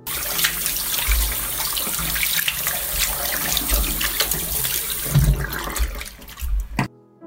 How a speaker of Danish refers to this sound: Vi vasker hænder,